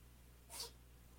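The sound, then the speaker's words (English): A single quick, breathy sneeze bursts out briefly and fairly softly, standing alone against a low, steady background hum with no one talking. “Bless you.”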